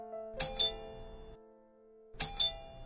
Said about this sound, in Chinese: 此时门铃声毫无预警的响起